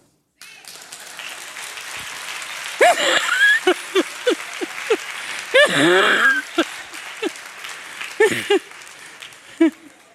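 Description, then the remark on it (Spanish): An audience breaks into sustained applause for about ten seconds, with scattered shouts and whoops of cheering rising above the clapping. “no van a aplaudir?”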